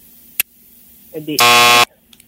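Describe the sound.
A loud, harsh game buzzer blares for about half a second, after a sharp click and a few brief murmured voice sounds just before it.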